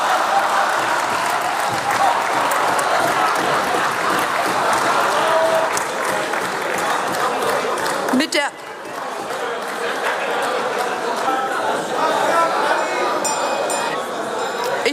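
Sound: applause in parliament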